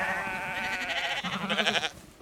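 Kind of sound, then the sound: animal, sheep bleating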